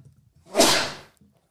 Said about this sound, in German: So, einmal niesen.